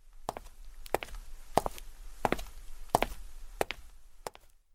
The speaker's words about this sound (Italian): E Pinocchio continua a piangere e a chiamar per nome il povero Eugenio, quando sente a un tratto un rumore sordo di passi che si avvicinano.